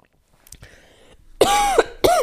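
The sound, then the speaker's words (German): A person coughs hard twice in quick succession, loud, preceded by a soft throat-clearing rasp with no talking. “Oh, heute habt ihr eine qualvolle Folge, wenn ihr das nicht mögt, sozusagen mit dem Husten und so.”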